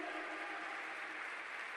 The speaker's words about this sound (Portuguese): Aleluia! Aleluia! Você está aplaudindo a palavra de Deus.